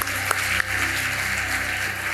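An audience applauds for the Triune God, a dense wash of many hands clapping together at a sustained, moderately loud level with no pauses and no voices.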